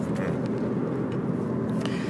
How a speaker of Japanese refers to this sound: 例えばじゃあ今僕運転してるんですけど目の前に車があるんですけども